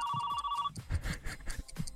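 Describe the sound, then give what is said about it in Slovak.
A doorbell, rung a second time during a 60-second timed challenge, rings with a steady electronic two-tone buzz for under a second, then cuts off, leaving a jumble of rustling, knocking and background noise. “Poďme, ja zvoním ešte raz.”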